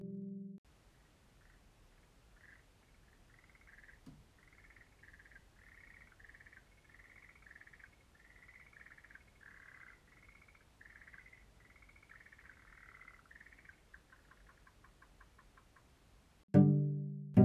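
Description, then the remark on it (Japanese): A frog calls in a long, rapid series of repeated croaking notes, steady and rhythmic, speeding into a quick trill near the end, heard alone against a quiet outdoor background. “さっき話していたカエルの声はこれです”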